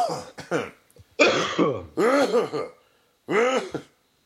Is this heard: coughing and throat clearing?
yes